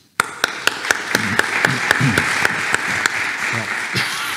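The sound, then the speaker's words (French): An audience bursts into loud, sustained applause for re-elected mayor François Rebsamen, starting abruptly and continuing steadily, with a few sharper claps standing out at a regular beat and faint voices underneath. “Et pour cela, je voudrais qu'on vous applaudisse.”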